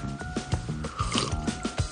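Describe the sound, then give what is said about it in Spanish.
Someone gulps down a glass of whisky in one go, in a rapid series of wet swallows, with liquid sloshing softly between each steady gulp. “se bebe el vaso de un trago.”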